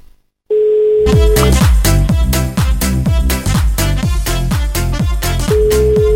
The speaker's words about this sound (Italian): Dai che squilla, dai, rispondo, rispondo.